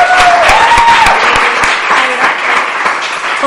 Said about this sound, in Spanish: Se viene el simpático huevo. Un fuerte aplauso para el simpático huevo.